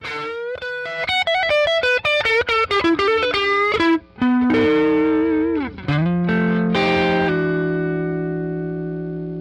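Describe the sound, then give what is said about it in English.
An electric guitar (a Strat) plays alone through a Magnatone Varsity, an EL84-powered 15-watt tube amp: quick picked runs and bends, then sustained overdriven chords that ring out and slowly fade, with a warm, slightly gritty tone and some effect shimmer. “It's an EL84 powered 15 watt amp, and that was with a Strat.”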